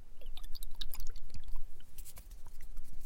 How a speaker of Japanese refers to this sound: 高感度で、すごく繊細な音が録音できるマイクっていうイメージがあります。こういうね、紙の音とかもね。とてもいいでしょう。かなり臨場感のある音が取れますよね